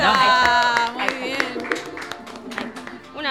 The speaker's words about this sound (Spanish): aplauso porque esta noche hay que festejar